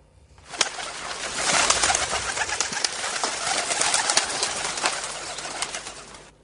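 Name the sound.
homing pigeons cooing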